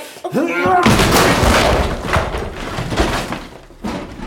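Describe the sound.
A brief voice, then a heavy crash as people break a door open on a count of three, followed by several seconds of loud splintering, banging and rattling, before fading with a final knock.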